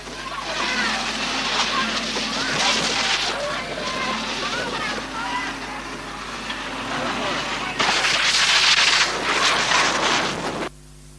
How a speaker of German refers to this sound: Das war der Wasserwerfer der hat dann leider das Mikrofon außer Betrieb gesetzt.